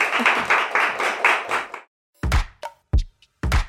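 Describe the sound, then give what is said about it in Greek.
A burst of applause from a small group as someone stands and exits toward the camera, dense clapping for about two seconds, then a few scattered louder claps and knocks trailing off. “Σηκώνομαι και κάνω έξοδο κανονικά προς στην κάμερα, χαιρετάω και πράγματα, χειροκροτάνε οι τσαούσες.”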